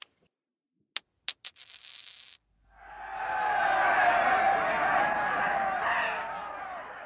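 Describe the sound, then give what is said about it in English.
Two penny coins are tossed in a two-up gambling game on Anzac Day, clinking and ringing sharply a few times, their bright tones lingering briefly, then a loud crowd erupts in sustained cheering and shouting that swells and holds. “Two Up, of course, is a gambling game that involves tossing two penny coins, ideally ones from 1915, in the air and betting on how they'll land heads or tails.”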